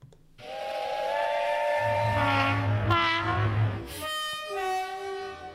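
A train horn blares in long, sustained harmonic blasts over a low rumbling engine and hiss, shifting pitch a couple of times as the sound effect plays loudly and alone.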